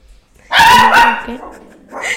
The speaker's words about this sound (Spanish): Yo sabía, porque sonó la puerta, yo sabía que, que casa iba a ponerse a ladrar. Esa es mi perrita, la mejor perrita del mundo.